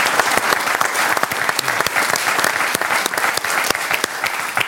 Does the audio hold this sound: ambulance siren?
no